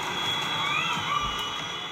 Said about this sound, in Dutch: Of het geluid van spelende kinderen.